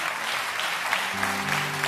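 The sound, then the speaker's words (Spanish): An audience at a Spanish-language sermon breaks into steady, dense applause, a continuous crackle of many hands clapping at once, with a faint low hum running beneath it. “Yo creo que los que aplauden son los que están entendiendo esto y lo reciben para ello.”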